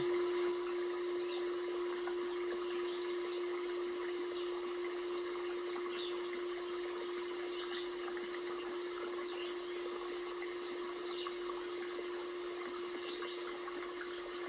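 River water flows gently and steadily throughout, a continuous soft rushing with no breaks, accompanied by a constant low hum underneath. No one speaks.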